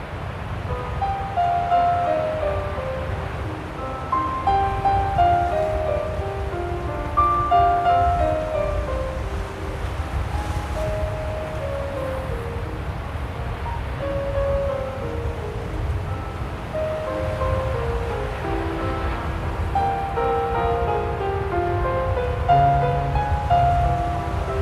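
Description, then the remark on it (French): A continuous roar of ocean surf and blustery wind on the island of Ouessant, France, fills the scene without pause, with faint melodic tones drifting above the steady wash of the waves. No one speaks. “Pour la petite histoire, sachez que le son de vagues et de vent que vous allez entendre, c'est direct de l'île d'Ouessant.”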